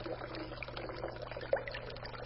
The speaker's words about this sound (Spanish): En el hidrante las gotas caen una tras otra.